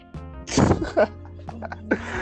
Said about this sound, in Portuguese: Pera aí, meu cachorro tá latindo aqui. Só um minuto.